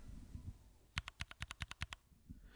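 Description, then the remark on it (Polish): A quick series of about nine crisp clicks from a mechanical keyboard switch being pressed repeatedly, evenly spaced and fairly loud against a quiet, low rumbling background. “Czyli są przełączniki, które na przykład jak naciskasz, posłuchaj”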